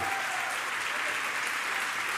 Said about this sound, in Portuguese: Se você recebe de verdade, dá uma salva de palmas muito, muito alto, muito alto ao Senhor.